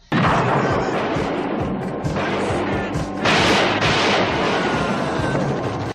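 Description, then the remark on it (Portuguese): A dense, continuous barrage of gunshots as police open fire, loud, with rapid overlapping bangs and bursts of heavier blasts filling all six seconds without pause. “Depois de 5 mil tiros, o ninja ainda escapa da polícia.”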